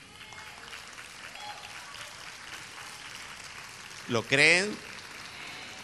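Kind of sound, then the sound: crowd, audience applause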